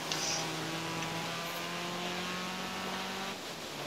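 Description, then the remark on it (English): A video game racing car engine in a head-to-head race drones at a steady pitch, a continuous buzzing whine with a gritty rumble underneath, holding a constant loudness before easing off slightly near the end. No one speaks. “Sorry to interrupt, but I'm racing you now.”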